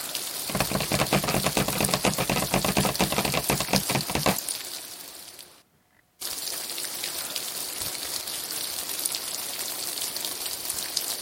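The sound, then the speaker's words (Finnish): Rapid, dense patter of fingertips drumming on a hard surface such as a table or floor, imitating rain, steady and loud at first, then lighter after a brief pause, continuing as busy tapping with no voices. “Rummuta sormillasi jotain kovaa pintaa, vaikka pöydän tai lattian pintaa.”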